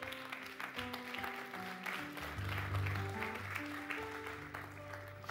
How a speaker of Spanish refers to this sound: Uy, yo pensé que le ibas a dar un fuerte aplauso a Dios.